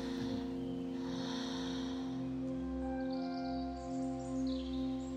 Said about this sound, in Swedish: Han har somnat i fåtöljen i sitt vardagsrum. Och man behöver inte lyssna särskilt noga för att höra ett högt snarkande som låter brum, brum.